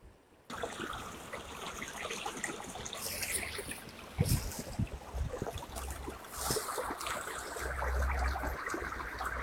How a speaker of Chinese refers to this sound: 唉，你听见我旁边的这个声音了吧？其实还是拒马河的声音。